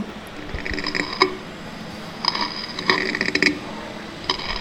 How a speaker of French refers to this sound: Auriez-vous imaginé qu'un escargot en train de mâcher de la salade ferait ce bruit-là C'est un enregistrement réel, ça n'est pas un bruitage, c'est vraiment un enregistrement réel.